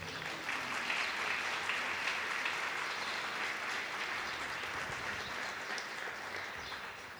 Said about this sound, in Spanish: Los que lo crean, denle un fuerte aplauso al Señor.